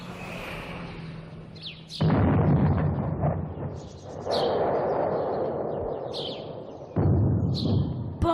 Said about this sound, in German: Hast du das gehört? Was für eine Explosion. Wer stört denn die Ruhe an so einem schönen Tag?